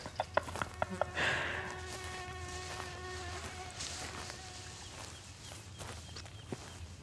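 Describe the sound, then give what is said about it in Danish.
A high, thin whine of many mosquitoes in humid, warm weather drones for several seconds, rising and fading, with scattered soft clicks and rustling steps around it and no voices. “Øh, og derudover, så øh, der var jo ret fugtigt og varmt, så der var rigtig mange myg, og de var bare ved at æde mig op.”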